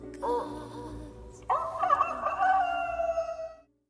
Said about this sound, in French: On ne sait pas trop pourquoi, mais elle commence par un chant de coq, après tout pourquoi pas.